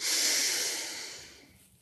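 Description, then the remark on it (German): A single deep breath in and out during a guided breathing exercise, with a breathy rush of air that gradually fades over a couple of seconds. No one speaks. “Wir erstmal atmen wir einmal ganz kurz tief ein und aus.”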